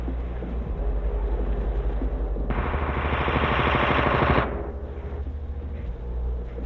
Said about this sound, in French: Dès que les instructions sont mises en place, la machine est mise en marche et peut effectuer 50 multiplication de 14 chiffres, je répète, 50 multiplication de 14 chiffres en une seconde. Écoutez bien le cliquetis des relais.